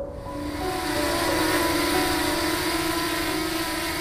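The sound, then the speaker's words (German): A drone flown by the settlers from the neighbouring hill hums overhead with a steady, droning propeller whine layered over broad background noise, holding at a constant loudness for a few seconds with no voices. “Und dann kommen da eben plötzlich diese Drohnen und fliegen mhm. über uns.”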